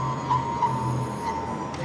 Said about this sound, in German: Das klingt eher wie Fräsen, oder? Meinst du, sie machen die Schlüssel fertig hier?